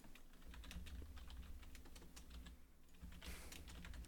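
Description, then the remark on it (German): Quick, irregular clicks of fingers typing on a computer keyboard, steady for several seconds, over a low constant hum with no voices. “Muss ich da jetzt noch schreiben.”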